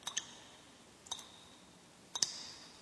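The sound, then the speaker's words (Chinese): Three water drops plink from a leaky kitchen faucet, about one per second, each a quick bright drip with a short ringing tone, faint and alone in a quiet background. “大老鼠也下了床，他打开房门去看是不是下雨，然后到厨房把漏水的水龙头关好了。”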